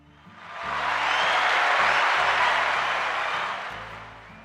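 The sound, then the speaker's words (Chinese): A burst of crowd applause swells in quickly, holds as a dense, steady wash of clapping for about three seconds, then fades, with soft low music humming underneath. “这时候要来个掌声。”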